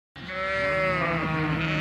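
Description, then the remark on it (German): A sheep at a research farm in Invercargill, southern New Zealand, gives a single long, loud bleat, a wavering nasal call that starts abruptly and holds for nearly two seconds with no talking. The sheep are to spend an hour in large metal test chambers measuring their methane. “Diese Schafe müssen heute für eine Stunde in die Versuchskammern der Forschungsfarm in Invercargill im Süden Neuseelands.”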